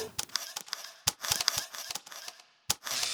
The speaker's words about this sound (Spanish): La posición, encuadre de la cámara y el clic son determinados en un instante.